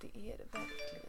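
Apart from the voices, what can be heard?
mobile phone notification chime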